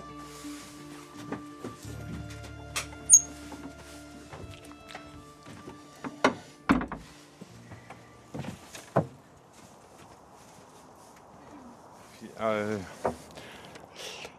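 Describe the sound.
A door is pushed shut as people go out, with a couple of sharp thuds and a latching click, among scattered knocks and handling noises, with faint voices in the background.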